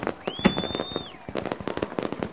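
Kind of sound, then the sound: sound effect, fireworks bursting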